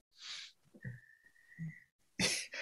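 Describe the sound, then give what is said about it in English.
Two sharp, noisy nasal sniffs, one at the start and a stronger one at the end, separated by a steady faint whistle-like tone and a few low grunts. “Why do you keep sniffing and shrugging your shoulders?”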